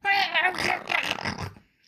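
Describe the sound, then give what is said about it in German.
A person's voice imitates an angry cat, snarling and spitting in harsh, growly bursts for under two seconds, fairly loud, with no other sounds around it. “Aber die Katze verstand keinen Spaß, sprang ihm ins Gesicht, spie und kratzte.”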